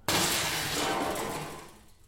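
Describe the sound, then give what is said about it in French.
A mirror smashes with one sudden loud crash, then a bright shower of shattering glass rings on and slowly fades over about two seconds. No voices are heard. “Attention. Non, non, le miroir”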